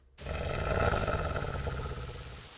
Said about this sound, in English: growling